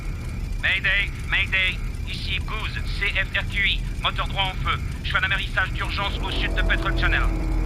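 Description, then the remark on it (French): A small propeller bush plane in distress, carrying three occupants over wild country, drones steadily in flight, a constant low rumble filling the background while a person talks over it throughout. “Et pour les trois occupants de l'avion en détresse, la situation n'avait pas grand-chose en commun avec la poésie d'un conte amérindien.”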